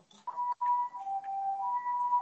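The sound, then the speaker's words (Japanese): An ambulance siren wails outside, its two tones alternating steadily at moderate volume with a slightly muffled quality, and no voices over it. “おめっちゃ救急車なってるけど。”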